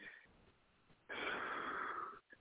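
A faint breath, then a loud, strained, wheezy breath that lasts about a second, with a slight catch in it, demonstrating a breath that snags where tension is stored in the breathing. It is heard alone, without talking.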